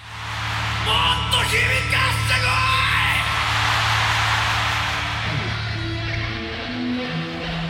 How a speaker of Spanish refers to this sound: unos pequeños grititos de emoción.